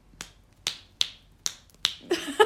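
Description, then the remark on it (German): Five crisp finger snaps in a steady rhythm, fairly loud, followed by a bit of faint vocal sound near the end. “schnipp, schnips. Schnipp, schnipp, schnipp.”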